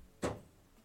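cat scratching

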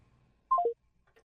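phone keypad dialing tones

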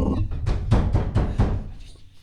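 knocking on a door

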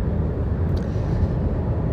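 car interior driving noise

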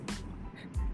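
wind noise

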